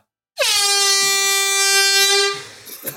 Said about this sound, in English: Play the horn. Right, hang on. Hold on your hats, because I need to get right today. We have a real horn. Stay there. This isn't going to sound that well. Three, two, one.